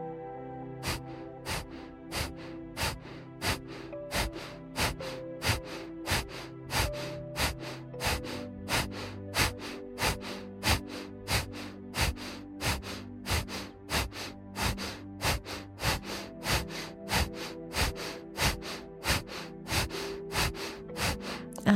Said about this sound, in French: En revanche, à l'inspire, je laisse mon ventre repartir là où il était. C'est parti juste pour quelques secondes de respiration du feu.